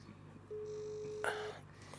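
A phone line gives a single steady ringback tone lasting about a second as an outgoing call rings, with a brief rustling burst near its end and faint background hum, no talking.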